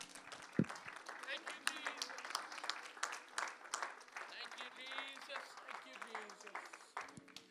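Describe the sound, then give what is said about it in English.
A church audience applauds steadily, giving God a hand clap of praise during a service: a dense wash of overlapping hand claps with a few cheers and voices mixed in, sustained for several seconds. “Could you give it God a hand clap of praise here tonight?”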